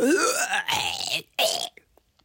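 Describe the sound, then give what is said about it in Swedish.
A person mimics a throaty hawking noise before spitting straight down into a wastebasket, a long guttural rasp followed by a shorter second burst, fairly loud, then quiet with a faint click. “Ett sånt ljud och spottar rakt ner i papperskorgen.”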